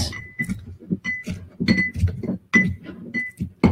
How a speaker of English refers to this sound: The regular mixing glass you find at any bit, any bar. Uh, we're going to muddle these things just a little bit.